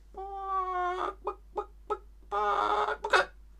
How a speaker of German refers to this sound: Das sind Hühner. Hühner können nicht so gut fliegen. Hühner sind eingeschränkt flugtauglich.